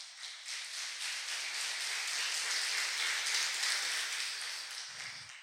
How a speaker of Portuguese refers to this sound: Agora eu quero um aplauso para o Senhor.